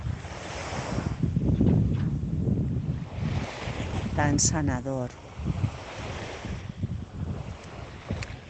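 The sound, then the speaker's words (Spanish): Sea waves wash steadily onto the shore in a broad, rushing roar, with wind gusting across the microphone and a brief soft voice speaking over the surf partway through. “Escucha todos estos sonidos del mar, las olas que llegan hasta la orilla, ese sonido”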